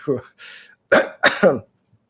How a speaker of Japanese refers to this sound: あ、ちょっと今、咳がですえー、失礼いたしました